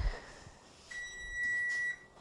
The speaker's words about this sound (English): There's my timer saying that a half hour is up.